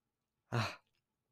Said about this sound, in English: I have to yawn.